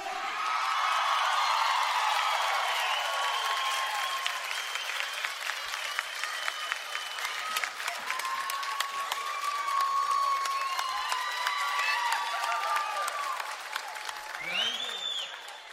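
An audience claps steadily for about sixteen seconds, a dense, even wash of applause with scattered whistles and cheering rising above it, tapering slightly at the end.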